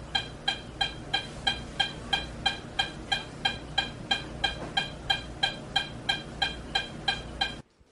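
A very fast, perfectly regular heartbeat of a child with supraventricular tachycardia (SVT), roughly three beats per second, pulsing steadily and clearly for several seconds with no voices, then stopping abruptly.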